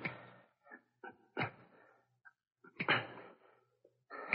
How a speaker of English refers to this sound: Uh, police dogs. I've got to quiet them quickly.